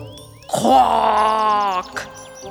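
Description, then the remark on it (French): A human voice imitates a raven's croak: one loud, drawn-out, deep and hoarse call lasting just over a second, with no other talking around it. “Le corbeau fait un croissement rauque et très grave.”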